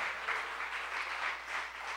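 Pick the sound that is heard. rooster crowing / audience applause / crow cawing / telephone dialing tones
audience applause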